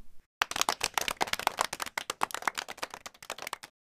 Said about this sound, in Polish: Przedstawiam Wam czterech kierowców, z którymi jeździłam najwięcej, więc bardzo proszę o klaski.